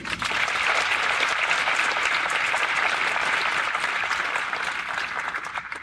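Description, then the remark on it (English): Steady, dense applause from a large audience at the University of Portland in Portland, many hands clapping continuously at a fairly loud level for several seconds without letting up, applauding the Rip City G League team. “So one more round of applause for Rip City.”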